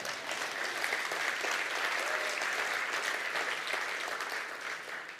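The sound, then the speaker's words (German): An audience claps steadily, a dense wash of many hands at fairly even loudness that holds for several seconds before easing slightly at the end. No one speaks over it. “ja, da könnt ihr ruhig mal klatschen.”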